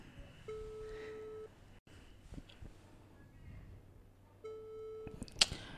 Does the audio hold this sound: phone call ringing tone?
yes